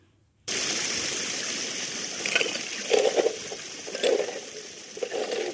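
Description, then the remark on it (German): Stream water rushes steadily over a perforated metal sheet with 3.5 mm holes, wedged between larger stones in a valley stream, as gravel and sand are pushed crunching across it while searching for emeralds; the water washes sand and small pebbles through. Fairly loud, with a few brief gritty splashes rising out of the continuous flow. “Er hat es so zwischen größeren Steinen eingeklemmt, dass es vom Bach überspült wird.”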